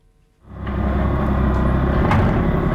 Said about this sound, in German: Vor der Kaserne des Frauenfeld sind die schweren Geschütze schon zu hören. Ein paar Radschützenpanzer donnern am Kasernenplatz vorbei.